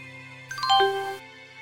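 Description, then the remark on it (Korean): A short mobile phone message chime from a phone in a trouser pocket as its owner gets into a car: a quick cascade of a few bright, descending electronic tones lasting under a second, clear, over a faint steady background hum. “강 형사가 차에 올라타자마자 바지 주머니에 넣어두었던 휴대전화가 울렸다.”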